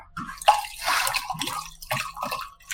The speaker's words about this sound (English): Pop the champagne. Pop. Hold on, I got a perfect recording for this.